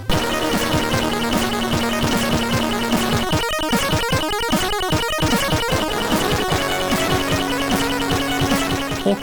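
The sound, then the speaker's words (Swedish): Commodore 64 SID chiptune music played on the newer chip: buzzy synthetic tones with held bass notes and fast, choppy arpeggiated passages in the middle, loud and continuous with no talking. “det mest vanliga exemplet på det är väl förmodligen titellåten till Skate or Die av …”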